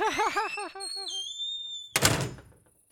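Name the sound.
door being closed shut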